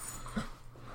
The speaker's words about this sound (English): That's my dog in the background.